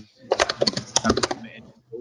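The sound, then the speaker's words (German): A rapid, irregular burst of keyboard typing lasting about a second, with crisp clicking keystrokes from newly joined colleagues typing on their keyboards during a call, before fading into quiet background noise. “Wir kommen gerade die neuen Kollegen rein, tippern auf der Tastatur rum.”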